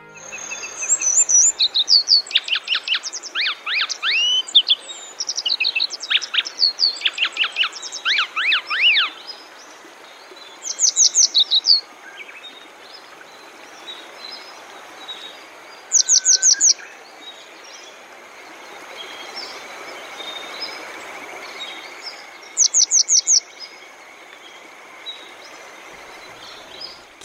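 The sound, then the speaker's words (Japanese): A grey wagtail sings by a small mountain stream on the Boso Peninsula, Chiba Prefecture, Japan: bright, high, sharp notes in a rapid jumble for about nine seconds, then three short bursts of quick trilled calls spaced several seconds apart, over a soft steady hiss. “房総半島（千葉県）のキセキレイ”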